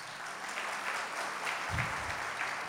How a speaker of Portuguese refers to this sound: Quem se converteu esse ano aqui na igreja? Tem alguém? Você. Você também. Que beleza. Salve de palmas para esses dois irmãos.